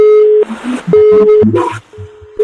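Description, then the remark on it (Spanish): A telephone busy signal on a call-in line to the radio station Radio Melodía after the caller hung up pulses steadily: a steady mid-pitched tone switching on and off about every half second, three beeps, with muffled noisy line chatter filling the gaps between them. “Ah, se colgó.”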